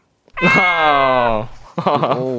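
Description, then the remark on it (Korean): A person imitates a cat's meow: one long, drawn-out, nasal mew with a falling pitch, then a shorter second mew. Fairly loud, with no other talking. “제게 위로의 한마디 해주시고 말끝에 야옹 붙여주세요.”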